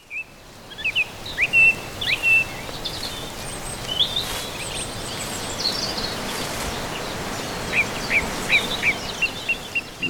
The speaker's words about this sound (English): For my soundscape, I've chosen a woodland walk. Birdsong, which interrupts you as you walk, and the rustling of the leaves underfoot, that crunch.